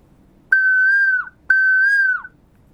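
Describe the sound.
A human voice whistles an imitation of a koel's call: two identical sustained, fairly high notes, each ending in a brief downward slide, separated by a short pause and heard alone.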